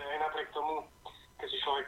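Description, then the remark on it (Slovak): A caller's voice comes through a thin, narrowband phone line during a radio call-in, with their radio playing the broadcast back in the background and creating an echoey, doubled sound in short bursts. “No, ale dajte, dajte to rádio, stište, lebo budete tam mať strašnú odozvu, tak si ho vypnite, ak sa dá a skúsme sa niečo opýtať.”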